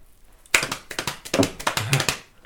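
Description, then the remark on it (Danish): Coconut shells clopped together to imitate horse hooves: a quick, slightly uneven run of sharp, hollow knocks, roughly a dozen, fairly loud and with no voices. “så øh, kan vi høre heste.”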